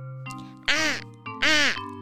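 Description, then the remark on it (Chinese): Two harsh, raspy crow caws ring out in quick succession, each loud and grating, over a steady low tonal hum that continues underneath. “哎呀，没想到呢，他发出的声音还是乌鸦的声音啊！”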